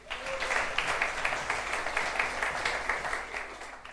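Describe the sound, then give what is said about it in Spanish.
Sustained audience applause, a dense wash of many hands clapping at a steady level for several seconds, with no voices standing out. “Y denles un aplauso, gracias.”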